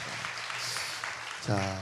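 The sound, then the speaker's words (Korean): An audience applauds with dense, steady clapping for over a second, then a voice starts speaking as the clapping continues underneath. “박수 한번 네. 주세요.”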